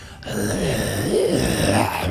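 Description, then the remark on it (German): A voice imitates an eerie, rattling groan with breathy, rasping texture, sustained for about two seconds at a steady, fairly loud level, with the pitch wavering up and down. “Und der lässt ein seltsames, ja, äh, gruseliges äh, Röcheln und, und, und, und Atmen von sich”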